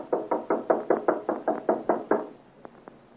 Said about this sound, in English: Knock loudly. Wake the gentleman up.